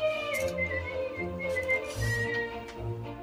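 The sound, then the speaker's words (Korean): A white-haired man whistles a melody with clear, sustained notes, fairly loud, while looking over the clothes hanging in an open wardrobe, over a low, steady background hum. Nobody speaks. “휘파람을 불면서 걸려있는 옷들을 살펴본다.”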